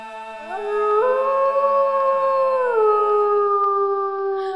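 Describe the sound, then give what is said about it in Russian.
A person imitates a wolf's howl: one long, loud wail that rises, holds steady for several seconds, then slides slightly lower, with no other talking. “Эй, волк, тебе сказано, не песняч, убью!”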